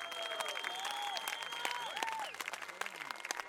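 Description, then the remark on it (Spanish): A sustained standing ovation from a crowd, dense rapid clapping throughout, with a few high whistling tones and cheers rising above it before the clapping thins slightly toward the end. “Vamos a empezar este episodio pidiendo una ovación sostenida y de pie a las mamás trabajadoras.”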